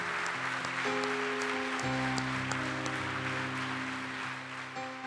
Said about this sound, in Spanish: Y toda la iglesia démosle fuerte ese aplauso al Señor. Fuerte ese aplauso.